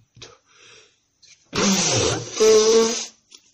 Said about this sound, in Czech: Hele, minule, minule tady krkal a prděl a teďka tady smrkáš